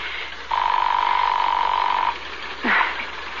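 A single steady, mid-pitched telephone ring tone of a call dialed to a home sounds over a thin, hissy phone line for about a second and a half, followed after a short pause by a brief rising blip.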